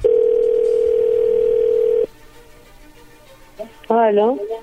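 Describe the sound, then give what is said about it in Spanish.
A steady, unbroken dial tone hums at one pitch for about two seconds as a phone call is being dialed out, then cuts off, leaving faint line hiss before a brief voice answers over the phone line. “Bueno, le voy a llamar el lobo, ahí se está marcando,”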